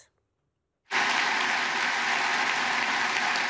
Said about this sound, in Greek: Με παρατεταμένο χειροκρότημα σε πολλά σημεία τη ομιλία του, ο Κυριάκο Μητσοτάκη εκφώνησε μια ιστορική ομιλία στο Κογκρέσο, στέλνοντα ταυτόχρονα με αφορμή τη ρωσική εισβολή στην Ουκρανία σαφή μηνύματα στην Άγκυρα.